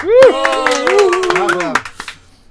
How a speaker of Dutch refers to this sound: En we zijn heel goed verzorgd vandaag, dus applaus daarvoor.